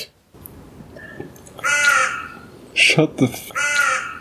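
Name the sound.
bird cawing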